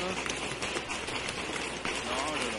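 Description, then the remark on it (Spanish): An audience applauding steadily for a few seconds, a dense, even crackle of many hands clapping, with voices and a few cheers mixed into the noise. “Ah, sí se trajo porra, nos aplaudieron más que nosotros, mi porra.”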